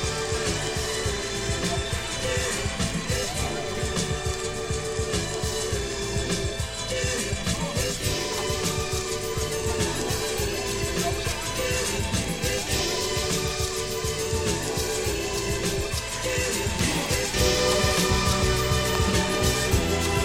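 A song plays continuously at a steady, full volume, with dense layered instrumentation and a pulsing beat throughout. There is no talking, and the track swells slightly louder near the end.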